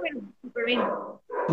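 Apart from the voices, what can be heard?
dogs barking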